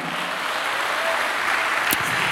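An audience applauds Christ steadily, a dense, even wash of many hands clapping at once, with no voices rising above it.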